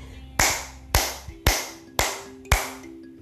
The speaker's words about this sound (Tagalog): Magaling! Limang palakpak para sa sarili.